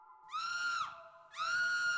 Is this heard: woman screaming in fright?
yes